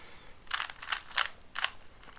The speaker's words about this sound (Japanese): 純正キューブは独特の音がするよねこれはねなんかいいいい音だと思うよ 僕この純正のキューブの音が好きなんだけど純正キューブ回しにくすぎてね